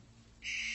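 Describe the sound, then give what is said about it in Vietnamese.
A harsh, hissing barn owl screech, from an owl perched on a house roof in the rain, bursts in about halfway through and holds steady and loud, rising abruptly out of a low background hum. “Không ai bảo ai nhưng những người lớn trong nhà đều dùng mình vì đây là tiếng con chim lợn.”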